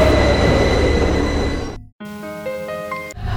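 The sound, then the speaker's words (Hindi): The last metro train of the day rumbles loudly along the tracks with a steady low roar, then briefly cuts out before a squealing, tonal stretch of wheels and motor whine follows. No one speaks. “दरअसल संजीव बस भागता जा रहा था और भागते भागते वो फिर उसी स्टेशन से मेट्रो में बैठ गया लास्ट मेट्रो में”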